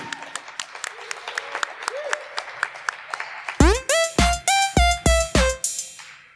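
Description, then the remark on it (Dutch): An audience applauds with steady, rhythmic clapping for about three seconds, welcoming a show's house illustrator, then loud, high voiced shouts or whoops burst out in quick succession over the fading claps. “Eh, ja, applaus mag wel.”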